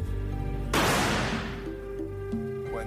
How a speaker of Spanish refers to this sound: Disparando el rifle al aire libre, registramos niveles de entre 110 y 120 decibelios, lo que es mucho. Y además sonaba claramente a un disparo.